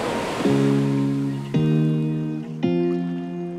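A steady wash of ocean surf fills the background while three sustained, resonant chords enter one after another, each with a soft swell. No one speaks.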